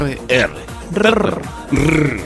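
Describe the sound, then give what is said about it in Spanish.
A person growls out a mock tiger roar in three short, throaty bursts, fairly loud, imitating the tiger's roar at the start of an Indian film, with brief pauses between them and no other sounds around. “Como el rugido del tigre que aparece al inicio.”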